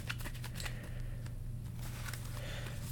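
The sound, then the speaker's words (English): Tarot cards being shuffled for a mind, body and spirit tarot reading, a quick run of soft papery riffles and flicks over a steady low hum, with no one speaking. “Let's get these shuffled.”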